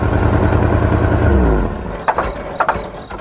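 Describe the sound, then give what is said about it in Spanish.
A car engine revs loudly, its pitch sliding downward for about a second and a half before dropping away, followed by a few sharp mechanical knocks. “Porque cada motor es diferente desde hace 104 años”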